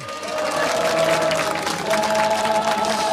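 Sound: crowd applause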